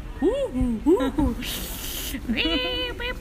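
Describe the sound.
A voice imitates the jungle night sounds heard in a pitch-black lodge bungalow: warbling, swooping animal-like calls, then a long breathy hiss lasting about half a second, followed by more wavering calls.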